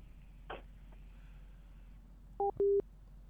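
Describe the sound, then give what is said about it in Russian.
A telephone busy signal as a live on-air radio call to a Gabriel Travel representative fails to connect: two short, steady electronic beeps near the end, the second slightly longer, over a low line hum with a brief crackle earlier. No one speaks. “Так, нету связи.”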